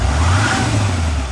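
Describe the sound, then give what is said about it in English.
A loud pickup truck engine, the Cummins V8 turbo diesel of a new 2016 Nissan Titan XD with 310 horsepower, revs with a deep, steady rumble and a broad roar, holding strong throughout the short burst without any voices. “This is the sound of the Titan flexing its 310 horsepower muscle”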